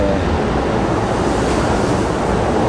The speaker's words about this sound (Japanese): 今電車通過中です全然聞こえなさそうですね